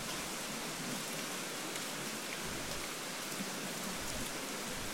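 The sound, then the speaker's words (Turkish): Steady, dense Amazon rainfall hisses evenly throughout, a wash of countless drops with no pauses and no voices, holding at a constant level for the whole stretch. “Şimdi seni yavaşça şiddeti azalan Amazon yağmurlarının sesiyle baş başa bırakıyorum.”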